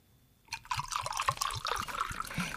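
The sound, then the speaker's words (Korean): Barley water is poured from an aluminium kettle into a brown handleless cup in a school staff room, a steady splashing trickle with a gurgle that rises in pitch as the cup fills, starting after a short silence and running to the end. “교무실 한쪽에 놓인 양은 주전자를 들고 와 손잡이가 없는 갈색 물컵에 물을 따라주었습니다.”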